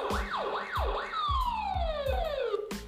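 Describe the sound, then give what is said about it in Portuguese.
A police car siren wails in quick rising-and-falling sweeps, then its tone slides steadily downward as the car starts up and drives off on its patrol, with regular low thumps pulsing underneath. “E exatamente, a viatura ligou e saiu em direção a fazer a sua ronda.”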